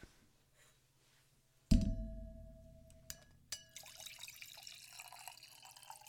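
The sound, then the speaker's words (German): White wine (Weißburgunder, a Pinot Blanc) pours into a glass, a sudden splashing start followed by a steady liquid trickle with small clinks and gurgles, no one speaking. “Ih, das hört sich an, als würde ich verpinkeln.”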